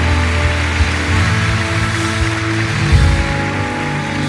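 Loud, sustained applause from an audience, given when the preacher asks for a loud round of applause: dense, steady clapping with no break for about four seconds, over a low, steady musical drone.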